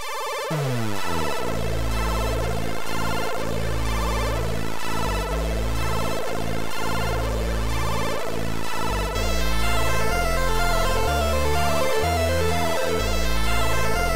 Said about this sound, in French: et qui crée de la tunes avec son Commodore 64. Et vraiment, c'est vraiment très bien.